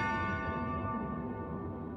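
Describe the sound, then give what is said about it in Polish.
A deep bell tolls once again and its rich, ringing tone hangs in the air, slowly fading over a couple of seconds with no voices present. “Napięcie przerwał ponowny odgłos dzwonu, przez który ledwo zdusiłem w sobie krzyk.”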